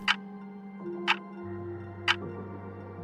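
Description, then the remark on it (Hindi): A clock ticks steadily, one sharp tick about every second, four ticks in all, over low sustained humming tones and no voices; the clock is striking the hour. “घड़ी का घंटा टन टन करके बज उठा चार साढ़े चार पांच”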